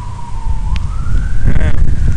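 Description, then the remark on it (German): A police motorcycle siren passes by, its single wailing tone sliding steadily upward over a heavy low rumble of traffic and wind noise. “Und Polizeimotorrad. Jetzt haben wir echt alles gesehen hier. Ja, jetzt haben wir hier einmal alles mit Sirene haben wir jetzt durch.”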